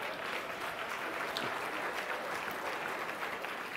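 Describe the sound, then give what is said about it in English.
An audience applauds steadily for a few seconds, a dense, even wash of many hands clapping at once with no pauses and no voices standing out. “Come on, clap.”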